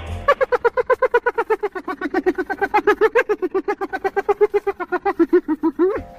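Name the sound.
hyena laughing call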